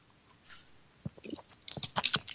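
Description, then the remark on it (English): After a second of near silence, someone takes a drink of water: a run of soft wet mouth clicks, slurps and gulping swallows, uneven and moderately loud, with no talking. “I take a drink of water, make sure my voice doesn't fuzz out,”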